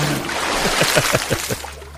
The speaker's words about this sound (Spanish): Bien chapuzón.